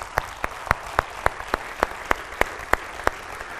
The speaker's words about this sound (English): So let's all have a round of applause for that because that's just brilliant.